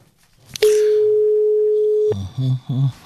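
A sharp click, then a steady, mid-pitched telephone tone of a phone call made as a small prank holds for about a second and a half before cutting off abruptly as a voice starts talking on the line.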